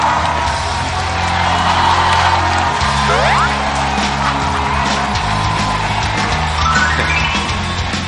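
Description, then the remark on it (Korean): A talk show audience applauds loudly and steadily for several seconds to welcome a guest, a musical actor. The dense clapping is mixed with cheers, and a couple of rising whistles cut through. “박수로 환영해 주시기 바랍니다.”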